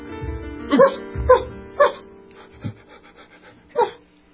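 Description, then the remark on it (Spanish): A small Maltese dog lets out about five sharp, high-pitched barks at irregular intervals, fairly loud, with no one talking. “Cuando de pronto fui interrumpido por el abrupto ladrido de mi perro.”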